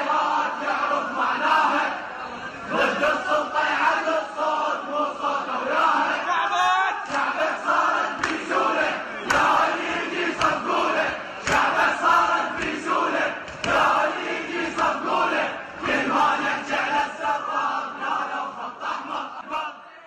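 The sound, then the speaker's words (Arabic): A large crowd of pilgrims walking on foot toward Karbala, Iraq, chants Husseini chants together in loud, rhythmic unison, with the sound of their footsteps. Voices rise and fall in repeated phrases, with steady collective energy throughout. “موسيقى حناجر حشود بتمشي وصوت خطى رجليها لمئات الكيلومترات للوصول لكربلاء هو اللي كان ضابط إيقاع الردات الحسينية خلال الطريق”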